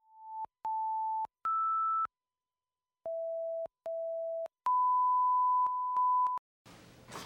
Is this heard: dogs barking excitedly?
no